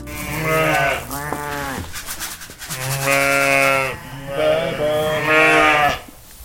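Sheep and rams of mixed crossbreeds bleat loudly and repeatedly in a farm barn once used for cows, on a farm of 370 sheep and rams in Madliena parish, Ogre municipality; several overlapping wavering cries with a busy barn background and no talking.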